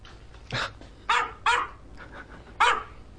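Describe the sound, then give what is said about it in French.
A small dog barks four times in short, sharp, high-pitched yaps at an irregular pace, close by and fairly loud, with quiet background noise between barks and no one talking. “Bref, tout a commencé en janvier 2013 lorsqu'un utilisateur de YouTube, canadien de son état et ayant pour pseudo Death qui s'ennuyait un peu trop sous ses 12 mètres de neige, a posté une vidéo de son chien l'intitulant sobrement The New Dog Source.”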